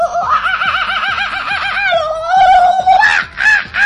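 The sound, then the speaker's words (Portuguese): Macaws squawk loudly in a rapid, raucous series of harsh, wavering calls, building into louder overlapping screeches toward the end. “De araras. Meu Deus. Olha lá.”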